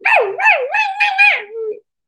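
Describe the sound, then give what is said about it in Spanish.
A female dog howls once at midnight inside an apartment, fairly loud, its wavering cry rising and dipping in pitch for nearly two seconds before trailing off into silence. “Y de repente comienza la perra.”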